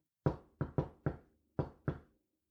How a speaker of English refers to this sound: There, I just knocked on the door. So to knock is to hit something.